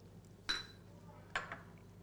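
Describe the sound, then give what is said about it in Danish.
Two sharp glassy clinks, a bit under a second apart, each with a brief ringing tone, as a shot glass is plopped into a glass of beer to be drunk in one go. Fairly quiet against a low background hum, with no talking. “Og så er det egentlig meningen, at man bare plopper det ned i og drikker i en go.”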